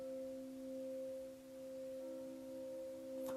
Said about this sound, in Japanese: クリスタルボール知ってますって。これめっちゃいい音じゃないですか。